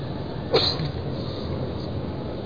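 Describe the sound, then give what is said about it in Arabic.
A single short sneeze bursts out near the start over a steady background hum, then the background noise continues with no speech. “رحمك الله”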